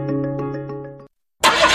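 The starter of a car with a dead battery cranks with a steady, rhythmic chugging for about a second, but the engine never catches. It cuts to silence, then a loud burst of broad hissing noise follows.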